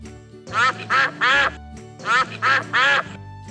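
Three ducklings at a giraffe's farm quack six times in two quick groups of three, each call a short, nasal, buzzy burst. The calls are fairly loud, with a brief pause between the groups and no talking.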